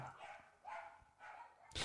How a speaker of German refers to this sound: Ja, aber das ist doch professionell. Die Tür aufzulassen, wenn draußen ein Hund kläfft. Das ist professionell.